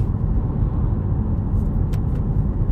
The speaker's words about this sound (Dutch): Ah, Amai, dat is hier een meneertje die hier in zijn autootje zit en die rijdt hier echt gewoon op mijn rijbaanvak.